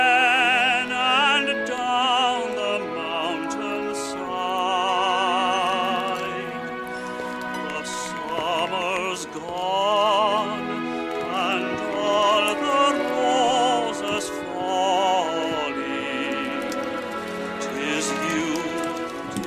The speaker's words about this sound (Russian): Фоном для всей последовательности кадров звучит песня «Дэнни Бой» в исполнении ирландского тенора